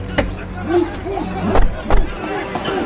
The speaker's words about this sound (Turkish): Emektarı boş bir yere çekip aceleyle indik arabadan.